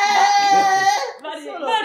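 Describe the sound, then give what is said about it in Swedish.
A voice imitates a train's door-closing warning tone: a sustained, high, tonal hum that drops and then shifts to a second wavering pitch, fairly loud. “varje gång dörren ska stängas låter det så.”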